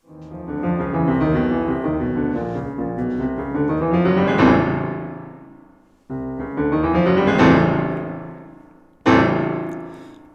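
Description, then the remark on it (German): Solo piano plays the close of a Rachmaninov étude: busy, swelling passages build twice to loud peaks, then a final forceful chord is struck and left ringing. No voices. “Und ganz am Ende hört das Stück so auf.”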